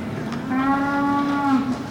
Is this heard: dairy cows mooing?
yes